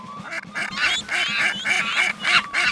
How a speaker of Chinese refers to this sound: 小鸭子们朝着米米嘎嘎乱叫着，米米没办法。